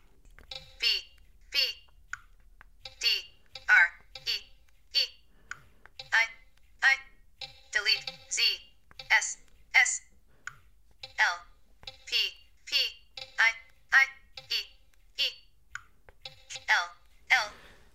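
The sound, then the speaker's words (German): A synthetic screen-reader voice calls out single letters typed on an on-screen keyboard while a Wi-Fi network key is entered, in short clipped syllables about one per second. Each letter is announced first in a lower and then in a higher pitch, clear. “Sie hören jetzt hier den Buchstaben mit tieferer und dann mit höherer Stimme angesagt.”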